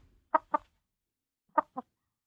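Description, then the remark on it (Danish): A hen clucks close to the microphone in two quick pairs of short, throaty clucks separated by a second of silence. No one speaks. “Nå, så må vi jo interviewe øh, høden. Kan vi få den op til, øh, til mikrofonen?”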